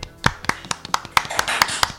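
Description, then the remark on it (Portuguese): Applause for a special guest, a lawyer from Salvador: a steady run of sharp, crisp claps at a quick, even beat, with a few overlapping claps thickening the middle of the stretch. No voices are heard. “Palmas para nossa oh! convidada.”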